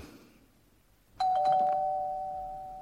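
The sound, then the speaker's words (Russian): After a quiet moment, a doorbell suddenly rings loudly, a sharp burst of ringing that settles into a sustained tone slowly fading away, with no one speaking. “Да не трезвонь ты, я слышу, слышу.”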